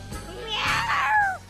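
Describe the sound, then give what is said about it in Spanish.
A person mimics a cat's meow, a single drawn-out vocal cry that rises and then slides downward in pitch, clear, with no other talking. “Hágale como gato, que chechente.”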